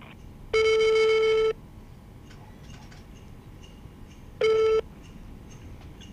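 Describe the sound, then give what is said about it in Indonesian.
A telephone ringback tone sounds twice as a call is placed: a steady electronic burst of about a second, then after a few seconds' pause a shorter one, clear against a faint hiss, with no one speaking. “Oke, kita coba telepon satu-satu ya.”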